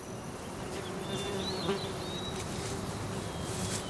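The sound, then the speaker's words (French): Steady insect buzzing fills the air outdoors, flies and bees droning continuously, with a few faint bird chirps and wind in the background and no one speaking. “J'entends des oiseaux, des mouches, des abeilles et le vent, mais pas ma bestiole.”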